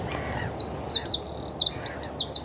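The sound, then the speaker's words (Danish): A small songbird sings loudly and continuously, its bright, rapid chirps and trills repeating in quick phrases over a soft, low outdoor rumble. “Lille ja. fugl med stor stemme.”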